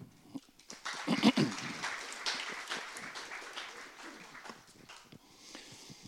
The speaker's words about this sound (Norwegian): Ta vel imot han med en applaus.